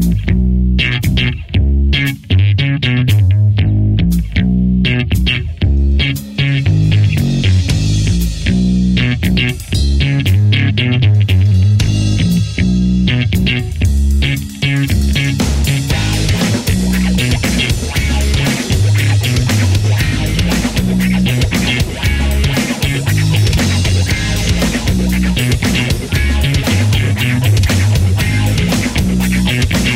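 A heavy Brazilian rock song plays loud and steady, with distorted, effects-laden guitars and pounding drums filling the mix, building from a sparser, choppy opening into a dense full-band wall of sound.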